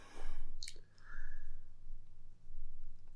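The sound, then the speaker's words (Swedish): A single short, crisp click stands out near the start, followed by a few fainter ticks against a quiet background with a low steady hum. “Hallå, jag klickar.”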